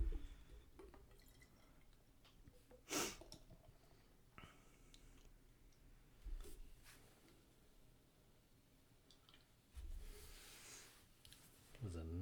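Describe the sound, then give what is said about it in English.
Dark, chocolate-colored beer pours into a glass in short, quiet splashes and trickles, with a few drips and clinks scattered between them and soft murmuring voices in the background. “So while you're pouring that, I am going to bring up some stats from the Beer Dad and Brewed podcast.”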